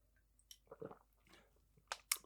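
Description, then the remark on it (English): Quiet sipping of tea sweetened with sugar from a cup: a few short, wet slurping and mouth sounds in quick succession, ending with two sharper, brighter slurps, with no talking. “Okay, so let, us take a sip.”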